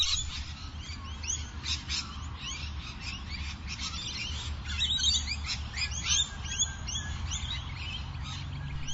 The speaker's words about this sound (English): maybe these bird sounds have inspired some of you to go on a masked walk along the creek this week